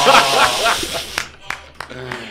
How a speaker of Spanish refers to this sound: Bravo. Un aplauso ahí, hombre.